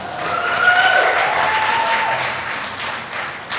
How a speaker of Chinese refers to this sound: 啊，谢谢你们哈，奚落的掌声。